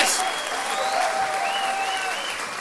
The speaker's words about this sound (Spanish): ¡Un aplauso, cabrones!